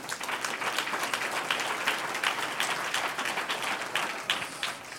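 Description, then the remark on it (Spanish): A crowd applauds steadily for five seconds, many hands clapping in a dense, continuous patter that stays fairly even in loudness and tapers slightly at the end. “Un aplauso al Señor.”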